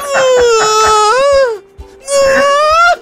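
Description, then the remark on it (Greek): A voice imitates the high, wavering wail of burning mushrooms in two long drawn-out cries separated by a brief pause, loud, sliding slightly in pitch like a mournful moan. “διάφορα μεγέθη, κάνουν και διαφορετικό λίγο ήχο. Αλλά αυτό τα ακούμε έτσι.”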